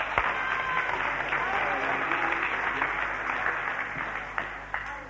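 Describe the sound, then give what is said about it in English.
A church audience breaks into sustained applause for a young man from Norwich, many hands clapping at once in a dense, steady wash of sound for several seconds before starting to thin out. “Give him a clap.”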